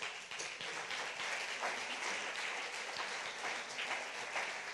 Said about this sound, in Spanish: Denle un aplauso al Señor, ese es nuestro Dios.